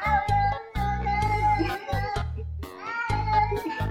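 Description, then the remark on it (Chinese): A stray cat at a pet hospital in Beijing, baring its teeth at a nurse, lets out a run of harsh, growling meows, several drawn-out yowls in quick succession with breathy, hissing edges, loud and agitated, with no talking. “我说在北京有一家宠物医院，有只小猫咪龇牙咧嘴，对着护士是骂骂咧咧，你听听看。”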